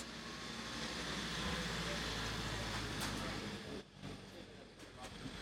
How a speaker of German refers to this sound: jetzt kommt hier ein städtischer Wagen vorbeigefahren. Ja, warten wir kurz.